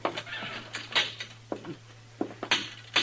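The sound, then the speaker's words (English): A jail cell door being locked: a string of sharp metallic clicks and clanks at irregular intervals, fairly loud, over a faint steady hum, with no voices. “Uh, lock the cell, will you, Chester?”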